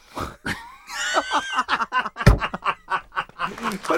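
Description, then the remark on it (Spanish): A voice imitates a mariachi grito: a rising, high-pitched yell breaks into a rapid string of yelping, laugh-like bursts, moderately loud. “Yo no sé hacer gritos de mariachi.”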